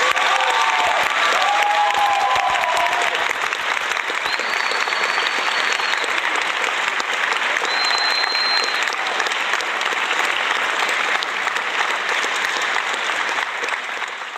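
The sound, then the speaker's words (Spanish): Sustained applause for a guest of a live online broadcast, a dense, steady wash of many hands clapping for the full length, with a few faint whistles and cheers rising above it before it tapers slightly at the end. “Vamos a mandar sus aplausos respectivos porque está con nosotros.”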